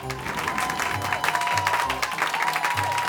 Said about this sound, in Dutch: De heksen juichten en klapten heel hard in hun handen.